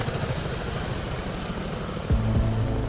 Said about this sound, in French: Le lendemain matin, l'hélicoptère du Pharos m'a amené dans l'île. Vu du ciel, le panorama était à couper le souffle.